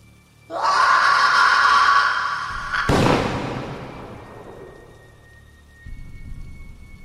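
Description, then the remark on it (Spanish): Steady heavy rain hisses loudly during a strong storm at night, then a sharp thunderclap cracks and rolls away into a long fading rumble, followed by a low grumble of thunder as the storm continues. “Esa misma noche, producto de una fuerte tormenta, la electricidad se cortó en toda la calle”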